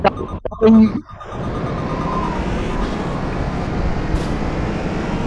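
A couple of short electronic tones, then a racing car engine in an audio racing game roars up and holds a steady, loud, dense rumble for several seconds with no talking, as the accelerator is blipped to warm up the engine before the start at a circuit in Dubai.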